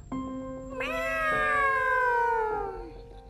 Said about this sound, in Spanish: Era una noche fría, cuando cerca de la ventana de Luis maullaba un gato.